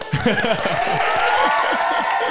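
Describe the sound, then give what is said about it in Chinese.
A steady wash of crowd applause fills the whole clip at a constant level, with murmuring voices and a few chuckles mixed in underneath. The applause marks the announcement of reaching Binance Market Maker level five and VIP nine. “嗯， 通常这时候要有掌声，对不对？”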